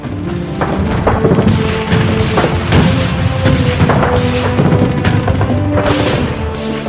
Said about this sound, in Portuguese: enquanto as explosões devastadoras de minas danificavam tanques e veículos de transporte.